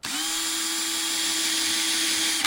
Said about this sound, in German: Mit einer Schleifmaschine muss er sie ein wenig kürzer machen, nur um einen Millimeterbruchteil. Diese Pfeife hier ist sechs Zehntel abzuschneiden.